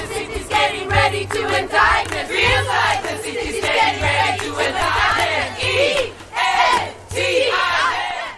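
protest rally crowd chanting

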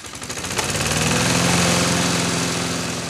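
lawn mower engine running

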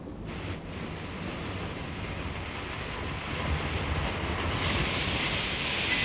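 train stopping

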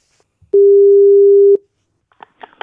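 telephone ringback tone

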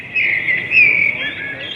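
birdsong played

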